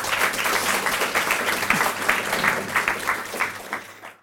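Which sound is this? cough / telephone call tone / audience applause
audience applause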